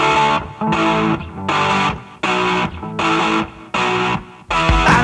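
A loud punk rock song opens with distorted Telecaster electric guitar chords hammered out in a steady, driving rhythm of repeated bursts, with no singing yet.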